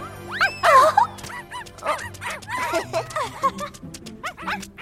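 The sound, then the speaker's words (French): Several puppies yip and bark excitedly in quick, high-pitched bursts, overlapping one another, with occasional whimpers mixed in throughout. “On dirait qu'ils sont impatients de les porter.”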